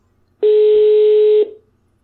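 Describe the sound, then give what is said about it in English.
A single loud, steady ring of a European telephone ringing tone on a call to Sweden, one flat electronic beep lasting about a second before cutting off, with no one talking. “Love the European, uh, the European ringing.”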